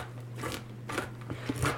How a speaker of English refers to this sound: That's me chopping. Do you yeah. hear that?